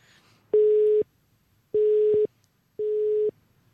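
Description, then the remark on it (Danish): Three steady electronic telephone tones, each about half a second long, sound at even intervals over a quiet background as a phone line rings out while a man is called again. “Så prøver vi at ringe til ham igen.”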